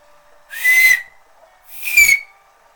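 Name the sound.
two-finger whistle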